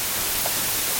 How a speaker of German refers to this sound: So, jetzt habe ich es mal mit äh, 44, äh, Kilohertz. Ja. Klingt schon so. Ja, das klingt so Rauschen im Radio, wenn es kommt. Aber das ist auch nur Scan Image, das ist nicht das Source Code.